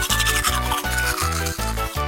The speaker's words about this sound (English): He brushes his teeth fast.